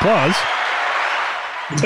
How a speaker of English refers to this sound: and uh, why I don't know why why the applause is so long, but like okay. I think I, I, can actually fade down the audience.